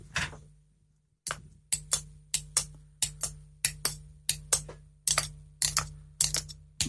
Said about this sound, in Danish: Er det en hest, du prøver at længe? Der skal du altså bruge kokosnød. Nej, det er øh, Bones. Bones? Ja, det er det øh, irske instrument Bones, hører jeg.